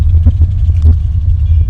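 A car engine idles with a steady, heavy low rumble, constant, while stuck in traffic waiting for a traffic police officer to let it through, with faint clatter and traffic noise drifting over it.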